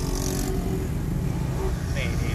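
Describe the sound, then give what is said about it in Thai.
Steady traffic noise in a long traffic jam, with the drone of motorcycle engines all around a car moving at about 40 km/h in the far right lane, a continuous low rumble, while a man briefly speaks over it. The motorcycles are ridden by teenagers without helmets, some with blue lights. “ตอนนี้ลายล้อมลายเอ้ยรอบๆของรถผมเนี่ย จะมีเสียงมอไซค์ตลอดแน่นอนทุกคันไม่ได้ใส่หมวกกันน็อกเนาะ แล้วก็เด็ก เด็ก เด็กก็อายุแบบหลักประมาณสิบกว่ากว่า”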